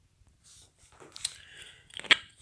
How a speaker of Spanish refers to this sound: Perdón, hice una pequeña pausa para tomar agua.